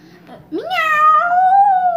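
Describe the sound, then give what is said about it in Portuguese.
A child's voice imitates a cat with one long, drawn-out meow that rises and holds, loud, after a brief quiet moment. “Miau! Miau! Miau!”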